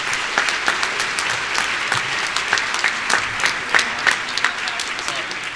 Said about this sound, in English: Well, how about another round of applause for all our 2018 best places to work?